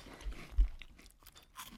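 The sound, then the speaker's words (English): Someone crunches on a reduced-fat cheese puff: a series of crisp, dry chewing crackles, with one louder snap early on, then softer irregular bites trailing off. No talking. “You try that cheese puff.”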